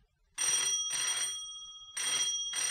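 An old-style telephone bell rings loudly in two long bursts, with a brief pause between them and a sustained metallic tone running through, close by and with no voices.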